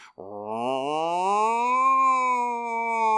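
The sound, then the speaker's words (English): A voice does a long, rising wail imitating an alarm siren, sustained for about three seconds with a yowling, cat-like quality, loud with no other sounds. “Oh, still kind of sounds like a cat, but whatever.”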